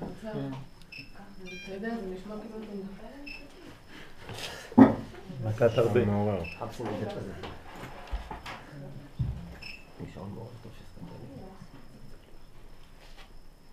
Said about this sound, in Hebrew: מה זה, יש לנו צרצרים?